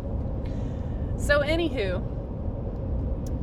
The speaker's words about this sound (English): sorry about any background noise, but uh, the road is a loud place.